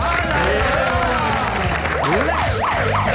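An audience applauds with a steady, dense wash of clapping that fills all three seconds. Partway through, a wailing siren-like tone starts sweeping up and down over the clapping.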